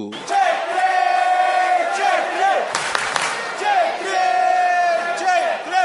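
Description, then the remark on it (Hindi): A huge stadium crowd chants in unison at India's first football qualifier match, sustained roaring voices rising and falling in a rhythmic refrain, with a brief burst of cheering midway before the chant resumes. “biggest football fan biggest बोले तो biggest football fan this is from the stadium uh guys जब India का पहला क्वालिफायर मैच हुआ था”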